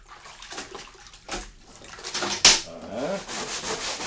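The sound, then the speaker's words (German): Wet scrubbing and washing of blood stains, a steady rough rubbing with splashing water, rising in intensity, with one sharp bright splash or clatter midway and continued sloshing after. “Jetzt putzen sie da doch schon mindestens eine Stunde.”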